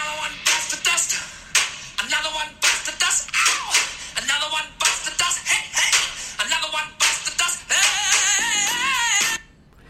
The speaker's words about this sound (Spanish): Y que había un pedazo de la canción que si sonaba al revés decía Decide to Smoke Marijuana. Este es el pedazo de la canción como suena originalmente, ¿vale? Voy a intentar aquí recreárselo para que lo oigan. No es el todo fácil.